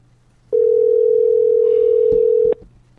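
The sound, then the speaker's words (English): A single steady ringback tone from an outgoing phone call that goes unanswered, one ring lasting about two seconds, loud with faint background noise before and after. “Cause now he ain't picking up the phone.”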